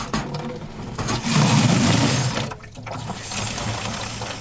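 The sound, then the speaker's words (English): Mineral-laden water from Mother Cabrini's mountain spring runs steadily from small outdoor spigots near a shrine chapel as visitors fill paper cups, quart bottles and plastic gallon jugs: a continuous splashing rush that swells louder midway, briefly drops off, then resumes at a moderate level. No one speaks. “On this day, dozens of visitors gather around small outdoor spigots not far from the chapel to fill paper cups, quart bottles, and plastic gallon jugs with the mineral laden water.”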